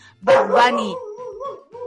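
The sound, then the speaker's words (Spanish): A dog gives a loud bark followed by a softer whining yelp, with a trailing whimper-like tone fading over about two seconds. “9 con 12 minutos y con ladridos y todo, nos vamos a la música.”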